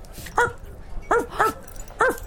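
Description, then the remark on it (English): A dog barks four times in short, sharp bursts, the middle two coming close together, against a faint background hum with no one talking. “Look at this adorable dog.”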